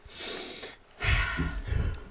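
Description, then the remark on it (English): A person noisily imitates a man sniffing the ocean air while walking on a beach in Pismo: one drawn-out, breathy inhale, a brief pause, then a second louder, snortier sniff, with no speech. “took a whiff of the, the air and he said, I love the smell of the ocean”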